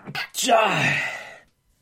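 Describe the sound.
A single loud sneeze: a couple of quick catching breaths, then a sharp burst that stretches into a voiced, falling cry before cutting off into silence.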